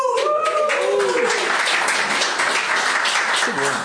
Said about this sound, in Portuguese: Eles só estão a bater palmas para ver se eu me vou embora mais depressa que já estão fartos.